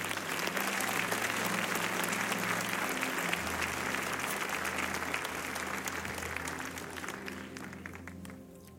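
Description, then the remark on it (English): A church audience breaks into sustained, dense applause as a hand clap offering to God, many hands clapping steadily at full volume before gradually thinning out toward the end. A low hum runs underneath. “Come on, give God a good hand clap offering.”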